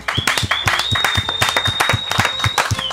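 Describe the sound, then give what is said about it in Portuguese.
A small group applauds steadily, with rapid, overlapping claps that stay loud for a few seconds. A thin high-pitched whistle runs through the clapping. “É, Olha, antes de mais nada, quero pedir uma salva de palmas”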